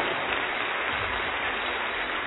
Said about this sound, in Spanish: No, pero si le va a dar un aplauso, por favor, desde lo fuerte.